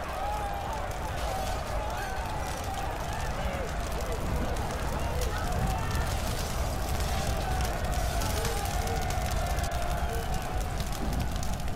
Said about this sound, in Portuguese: Atearam fogo em minha mansão. Vão queimar a cidade toda só para nos matar.